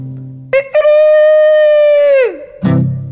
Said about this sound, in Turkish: Bir horozun sesi. Çok yakından geliyordu. Uzaktaki kümesten değil de yan odadan geliyor gibiydi.